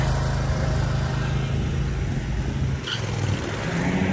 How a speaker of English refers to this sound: And got to get by this mower.